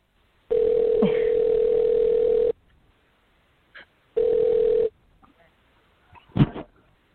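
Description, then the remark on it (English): A phone ringback tone sounds twice, a long steady burst and then a shorter one, with pauses between, followed by a brief clatter as the line picks up. “So hopefully he'll he'll pick up, and we'll be ready to roll.”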